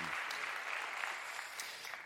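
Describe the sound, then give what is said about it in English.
An audience claps steadily, giving another round of applause to show appreciation for friends who shared personal encounters, a dense patter of many hands filling the room at an even, fairly loud level with no voices standing out. “Would you give these friends another round of applause and just let them know you appreciate them?”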